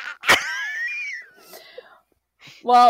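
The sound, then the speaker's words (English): A voice imitates a gag like a human about to vomit who doesn't vomit: a sharp burst of breath followed by a strained, wheezy, falling tone, a brief pause, and then the start of another voiced sound. “But it's almost like a gag.”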